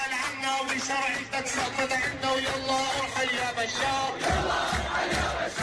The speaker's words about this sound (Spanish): Esta canción que suena de fondo, Ricardo, se titula Yala Irak Yabashar, que en español se podría entender algo así como Vete Bashar Vete, y se convirtió en un himno rebelde durante los primeros meses del levantamiento popular